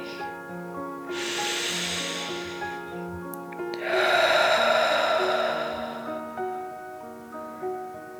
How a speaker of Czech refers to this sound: Jako správní dráčci se nadechneme dechem dračím. Hlubokým nádechem nosem naplníme celé své plíce. Na chvíli dech zadržíme. Potom vydechneme pusou a budeme předstírat, že jsme draci, co chrlí oheň. Připraveni? Hluboký nádech a pomalý výdech.